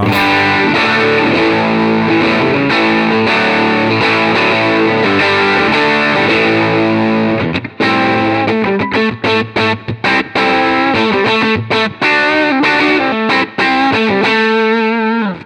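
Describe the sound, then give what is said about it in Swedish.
Electric guitar through a distortion pedal, with the guitar's volume turned down from 10 to about 8, plays thick, sustained chords that give way to choppy, stop-start strummed bursts with short gaps. It is loud throughout, with no one talking. “Ja, det är dreamen som smetar ut och komprimerar nu, men det låter jävligt bra.”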